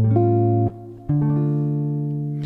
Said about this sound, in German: Ich mache jetzt den Grundton aus, dann hören wir ihn einfach so. geht dann zur Dominante A7.